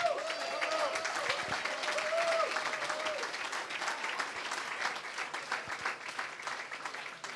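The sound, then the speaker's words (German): Sustained applause from an audience in the VIP room Dänemark in Kiel, welcoming the new goalkeeper Dario Quenstedt; many hands clapping in a dense, steady patter for several seconds, gradually thinning toward the end, with a few faint voices and a brief whistle-like tone early on. “Und jetzt bitte mal einen großen Applaus für unseren neuen Torhüter, Dario Quenstedt.”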